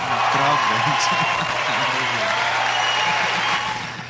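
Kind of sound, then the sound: sound effect, applause sound effect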